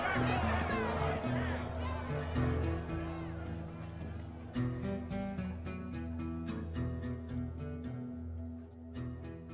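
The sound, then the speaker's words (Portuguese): Steady, rapid hoofbeats gallop along without pause, a rhythmic drumming of horse hooves layered over sustained music that carries on beneath them throughout. “Meu cavalo!”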